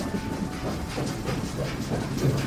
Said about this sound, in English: Oh my! It's night where we've arrived, and we're in a city rolling down the tracks while everyone sleeps.